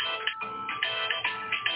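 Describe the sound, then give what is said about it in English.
A telephone rings with a bright electronic ringtone, its melodic tones repeating in quick regular pulses, steady and fairly loud with no one talking over it. “Some all right, the phone is gone now.”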